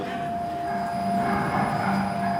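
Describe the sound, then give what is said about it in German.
A cocoa grinding mill runs steadily in a warm room, grinding cocoa into a liquid mass for chocolate, a loud continuous mechanical drone with a constant whine on top, filling the room without pause. No voices are heard. “Im nächsten Raum ist es warm und laut. Hier wird gemahlen.”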